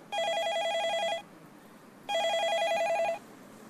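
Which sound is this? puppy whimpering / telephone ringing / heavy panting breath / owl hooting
telephone ringing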